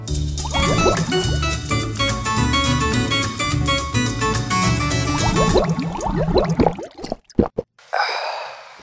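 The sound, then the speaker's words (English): Water pours into a glass for several seconds, its pitch rising as it fills, then a few gulps and a breathy, satisfied exhale. “What are you oh, drinking? Oh my gosh, uh, water.”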